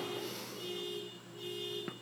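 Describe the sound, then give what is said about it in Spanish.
A car alarm blares steadily next to a house after the car was hit, its sustained electronic tone droning throughout with slight wavering and no talking, plus a brief click near the end. “Y ahora discúlpenme que parece que intenta que le dieron un cantazo a un carro aquí al lado de, de mi casa y está sonando un montón.”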